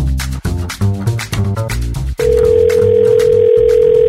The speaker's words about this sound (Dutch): Wij gaan door naar de rubriek eh, bellen met het politieke orakel. Iedere dag hebben we een andere, dus ik pak mijn telefoon er even bij. En vandaag gaan we bellen met Jan Terlouw.